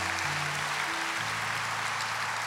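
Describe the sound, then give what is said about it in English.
An audience claps steadily, giving God a hand, in a dense, continuous wash of applause, with soft sustained low musical tones shifting underneath and no one speaking. “So come on, can you give God a hand for that?”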